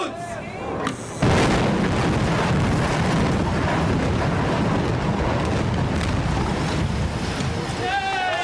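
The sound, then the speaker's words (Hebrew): A voice briefly speaks before the demolition explosion of the Maariv bridge in 2015 bursts in suddenly and loud, then a sustained roaring rumble of collapse and debris fills several seconds as a voice returns at the end. “עד לפיצוץ הגשר אה, מעריב בשנת 2015,”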